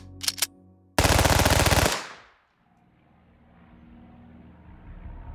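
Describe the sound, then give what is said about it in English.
A MAC-10 submachine gun fires a short burst, then unleashes a loud, continuous stream of rapid shots for about a second before cutting off, leaving a low engine-like rumble underneath. “But you know, the MAC 10 became the symbol of the Medellin cartel.”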